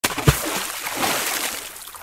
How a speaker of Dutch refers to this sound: Waarna de bezem pijlsnel omlaag dook, met heks en al, tot het hele zootje in het frisse water terecht kwam.